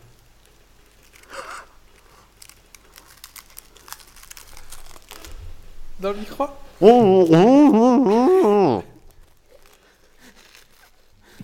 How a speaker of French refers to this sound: oh, On va entendre le craquement dans les chips hein, dans, le, micro.